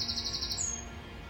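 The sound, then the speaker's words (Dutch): Birds chirp in a garden, a high, steady trill carrying for about half a second and then shifting slightly higher before fading, fairly quiet over soft outdoor background noise. “misschien heb je ook wel de vogeltjes gehoord op de achtergrond. Ik zit lekker buiten in de tuin.”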